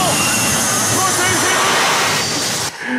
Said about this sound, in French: Il y a un avion.